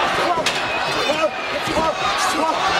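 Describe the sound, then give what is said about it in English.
Two sharp, loud chair shots by the Undertaker crack out about two seconds apart in a wrestling match, each a hard slamming hit on Austin, over a steady roar of crowd noise with voices talking underneath. “again, not the chair again.”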